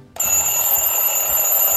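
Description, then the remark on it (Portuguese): An alarm clock starts ringing abruptly after a brief moment of quiet, a loud, steady electronic tone with high piercing harmonics that continues without pause, no voices present. “É bom da, tocar o despertador ali.”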